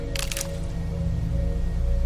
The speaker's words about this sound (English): Until off in the distance, you start to hear something in the woods to the west. Maybe a branch snap